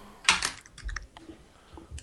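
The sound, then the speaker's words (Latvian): Quick bursts of computer keyboard typing, several crisp key clicks clustered together with brief pauses, moderately loud, with no voices. “Kāds kaut ko apēda un iz, iz, izrīja klaviatūru, vai arī vienkārši fonā viens fapo.”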